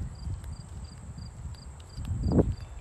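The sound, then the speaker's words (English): Steady, rhythmic cricket chirps repeat at an even pace over a constant high insect drone in a park with birds, with low outdoor rumble beneath and a brief louder scuff near the end. No one speaks. “just nature sounds. It's like the crickets and the birds, and it's just giving me a whole different vibe.”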